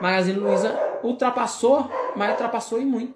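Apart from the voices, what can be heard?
small dog barking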